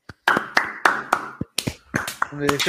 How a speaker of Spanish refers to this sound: Un aplauso para Abdul, mano.